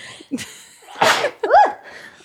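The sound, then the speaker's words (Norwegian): A single loud sneeze: a sharp intake, a bursting noisy blast, then a short voiced exclamation trailing off at the end. “Nå sitter jeg der og klemmer noe på plass med hansker og superlim, og så må jeg nyse.”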